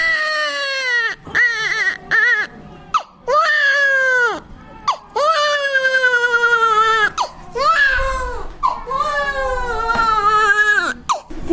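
A baby wails loudly in repeated long, rising-and-falling cries separated by brief gasps for breath, continuing steadily with no one talking.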